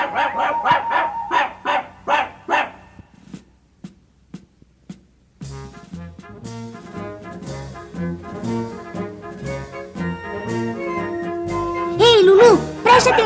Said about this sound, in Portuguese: Só quem está desafinando é o cãozinho Lulu.